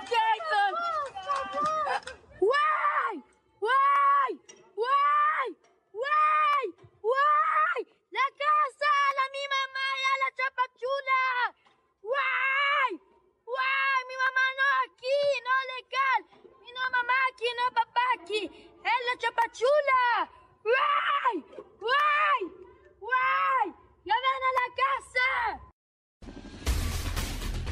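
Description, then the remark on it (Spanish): Children scream and wail in rapid, high-pitched bursts during the dismantling of a sect in Chiapas, one cry after another for nearly half a minute, loud, ending in a short blast of noise. “Así parte del desmantelamiento, los gritos de los niños, escuché.”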